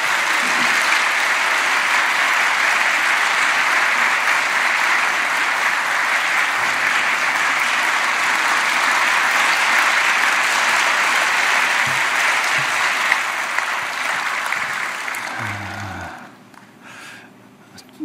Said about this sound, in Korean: 큰 박수로 함께 환영하겠습니다.